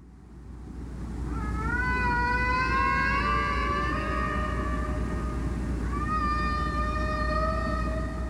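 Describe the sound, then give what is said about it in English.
Long, rising whale calls sweep upward in two drawn-out, harmonic-rich phrases, loud over a steady low underwater rumble, with no voices present; whale song recorded by the Ocean Alliance research vessel Odyssey. “The Odyssey also collects recordings of whales singing”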